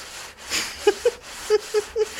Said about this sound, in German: Aber das stimmt schon, die, die Hose ist echt super laut. Und ähm, das ist eine Geräuschkulisse, das ist nicht zu fassen.